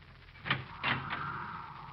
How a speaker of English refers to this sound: I opened the door.